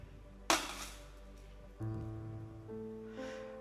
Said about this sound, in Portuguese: A lata vazia, ela é histérica. Ela reverbera.